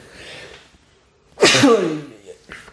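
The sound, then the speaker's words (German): A single loud sneeze bursts out sharply after a soft breathy intake, with faint murmured voices before and just after it. “auch das kommt vor, ja. Gesundheit.”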